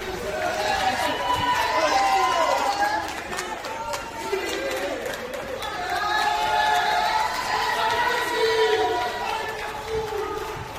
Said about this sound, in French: Euh, on entend euh, derrière les applaudissements des habitants d'immeubles assez cossus, bourgeois, on est dans le 17e arrondissement.